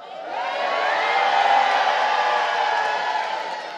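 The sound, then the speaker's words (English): An audience shouts and cheers together in a sustained, dense roar of many voices that swells over a few seconds and then begins to ease off slightly. “If you can shout, shout now.”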